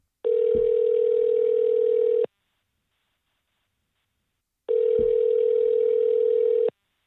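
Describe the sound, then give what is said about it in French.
An outgoing call's telephone tone for a call placed over the internet: two steady, loud electronic beeps, each about two seconds long, separated by a pause of silence, with no voices. “Euh, on est au téléphone. Ben, en fait, c'est moi qui t'appelle via les internets.”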